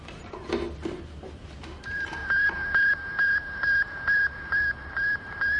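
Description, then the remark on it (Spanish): The radio signal of the Sputnik satellite transmitted from space: a steady series of short, high-pitched electronic beeps repeats at regular intervals, about twice per second, over a hiss of radio static after a brief noisy start. “Es una transmisión muy sencilla, un simple pitido repetido a intervalos regulares.”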